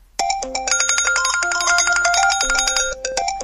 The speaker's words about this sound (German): Als sie das Wasser erreichte, tönte aus Olivias und Alfis Weste ein Alarmkonzert.